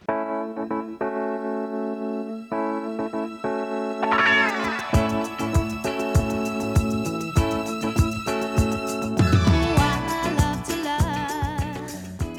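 A rock song plays steadily with strummed, effects-laden electric guitar that thickens into a full band with driving drums around the midpoint, loud and continuous with no talking over it.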